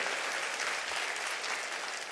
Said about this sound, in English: Clap your hands and say amen to that.